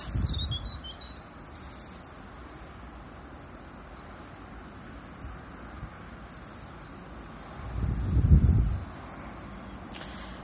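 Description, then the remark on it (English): Faint bird chirps twitter briefly at the start in a garden over a steady outdoor wind rumble, with a louder gust of low wind noise swelling near the end. No one speaks. “Maybe where I am in the garden, listening to the birds,”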